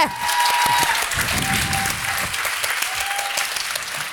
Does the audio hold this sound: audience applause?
yes